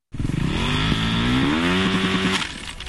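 A motorcycle engine starts abruptly and revs loudly, its rising, throaty pitch sustained for a few seconds before easing off slightly at the end, with no voices.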